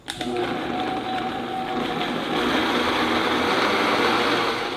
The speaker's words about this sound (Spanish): vamos a colocar el vaso de la licuadora ahí en la licuadora, lo vamos a hacer que se mezcle todo